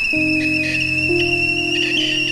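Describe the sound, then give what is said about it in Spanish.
A pot of water being boiled for cooking whistles with a steady, shrill, continuous tone that holds for the whole moment, over a low, constant hum and a faint bubbling hiss. “Es el agua que está hirviendo.”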